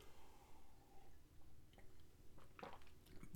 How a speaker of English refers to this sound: Let me grab a drink of water here.